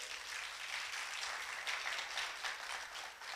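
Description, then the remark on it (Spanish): A crowd applauds steadily as applause offered to God, a dense wash of many hands clapping at once that holds at an even, fairly loud level throughout, with no talking over it. “Dale un fuerte aplauso a nuestro Dios.”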